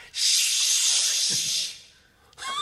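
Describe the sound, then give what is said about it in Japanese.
A person imitates a cicada with their mouth, producing a loud, steady, breathy buzzing hiss for under two seconds before it fades, followed by a brief voiced sound. “なんかセミの音が聞こえるだねセミのクオリティをやっぱりでももっとシュッシュッこれだよねすぐ即即入らないとなんか徐々に入ってた即シこの第1音が大事だから”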